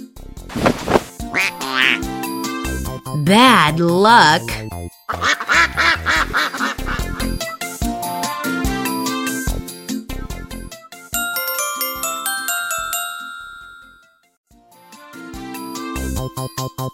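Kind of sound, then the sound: animal, duck quacking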